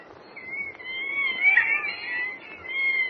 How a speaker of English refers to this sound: Listen to those monkeys chatter, Jimmy. They're the ones I was telling you about. Professor Nelson and Dr. Stone used them for experimental purposes.